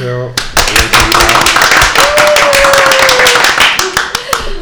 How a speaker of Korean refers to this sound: 네, 네, 오디, 오디오 빠 여러분들 대신해서 저도 아주 크게 박수 쳐드렸는데요.